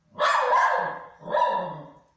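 A dog barks twice at an empty armchair, loud, each bark drawn out and a little rough, with a brief pause between them and no one talking.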